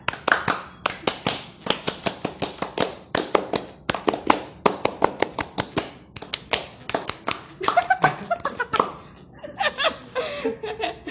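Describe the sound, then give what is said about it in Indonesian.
A group performs the Indonesian Pramuka scout clap (tepuk pramuka), sharp hand claps in a quick patterned rhythm of bursts and pauses, with laughter breaking in toward the end. “Tepuk pramuka.”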